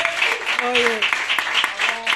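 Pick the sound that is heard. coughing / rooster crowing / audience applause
audience applause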